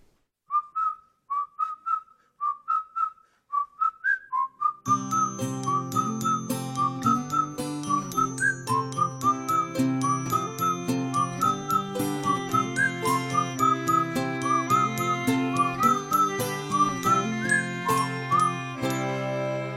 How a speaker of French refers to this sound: Il joue euh, surtout dans, les premiers albums du ukulélé. Et du coup, bah, je vous propose qu'on écoute tout de suite un de leurs morceaux de ukulélé